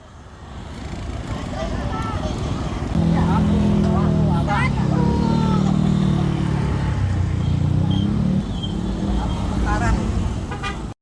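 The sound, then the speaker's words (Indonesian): Busy street traffic of private cars and motorcycles on Jalan Danau Sunter Barat, Jakarta Utara, crowded with Anies supporters leaving JIS Stadium, some on foot: a steady loud engine rumble with scattered horn toots and indistinct voices of a crowd mixed in throughout. “Area Jalan Sunter Barat dipadati pendukung Anies, baik yang menggunakan kendaraan pribadi, sepeda motor, hingga yang berjalan kaki.”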